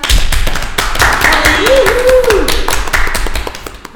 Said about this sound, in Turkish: Ya bir alkış lütfen.